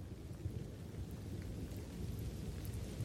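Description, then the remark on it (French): Heavy rain pours down steadily outside in a dense, unbroken roar, with a deep low rumble underneath like thunder. No voices are heard. “Dehors, il pleut à verse.”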